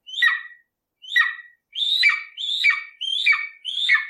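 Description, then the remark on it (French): An eagle's high, thin, squealing cry repeats six times: two spaced calls, then four in quicker succession. It is fairly loud, with no talking. “Est-ce que tu connais le cri de l'aigle”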